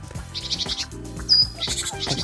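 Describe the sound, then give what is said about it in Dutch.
A great tit sings a quick series of repeated high, bright notes in short bursts, heard over a steady low background rumble with no one speaking. “De koolmees wel.”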